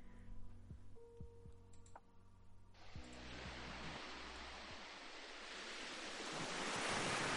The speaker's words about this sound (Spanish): Además, como siempre, he cogido la, versión del opening. Tal cual, sacada directamente. con las olas y con los espadazos.